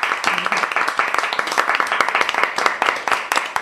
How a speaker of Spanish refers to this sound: Un aplauso, por favor.